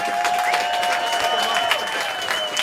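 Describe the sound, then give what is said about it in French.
An audience claps steadily in a dense, continuous patter of many hands, with a faint sustained tone running underneath throughout. “Hey, applaudissez”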